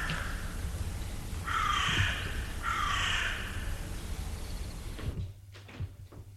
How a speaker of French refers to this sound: C'est fermé. Ouvre la porte de la maison et entre.